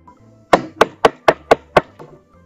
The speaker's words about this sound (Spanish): Luego de caminar por largas, largas horas, lograron llegar a la misteriosa casa del gran sabio. Y con un poco de temor, Caperucita golpeó a su puerta.